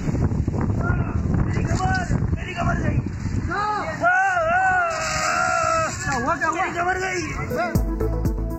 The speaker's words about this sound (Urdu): تو وہی آندھی آئی ہے آج کراچی میں اور آندھی جب آتی ہے تو ساتھ ساتھ کسی کسی جگہ میں کہیں ہلکی اور کہیں درمیانی بارش ہوتی ہے جیسے کہ ہوا کراچی میں